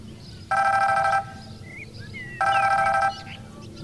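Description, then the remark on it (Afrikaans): A telephone rings twice, each loud electronic trill lasting under a second with a pause between, over a low steady background hum. “'n Foon wat lui klink altyd dringend.”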